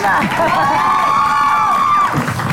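A loud crowd cheers and applauds, with high-pitched whoops and shouts rising and holding over a steady wash of clapping for a couple of seconds.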